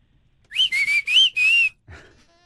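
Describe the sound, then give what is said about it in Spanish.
A person whistles at a national football team dressed in white, a quick run of five sharp, high notes with a slight wavering pitch, loud, like a catcall, followed by a brief soft rustle. “Y le dice, viene una selección vestida de blanco y le chiflan.”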